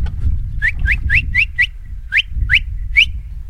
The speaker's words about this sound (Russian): Стадо, услышав свист хозяина, оставляет поедание травы и понемногу начинает двигаться